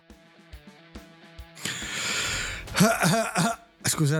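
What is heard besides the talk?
throat clearing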